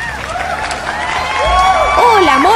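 An audience welcomes a coach of the show, bursting into steady applause mixed with cheering and shrill, swooping whistles and whoops, the crowd noise growing louder toward the end.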